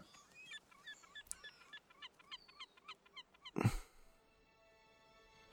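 A dog whimpers in a rapid string of short, high-pitched yelps, then lets out one louder, harsher bark before the sound falls away to a faint steady hum.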